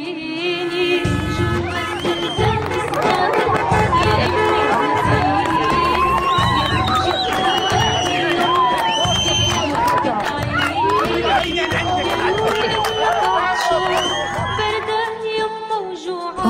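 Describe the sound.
A large crowd of dozens of Palestinians in Jerusalem cheers and chants loudly and continuously outside a prison, welcoming a freed prisoner after twenty years in Israeli prisons, a dense wall of excited voices with overlapping shouts and a steady rhythmic pulse underneath, never dropping into quiet.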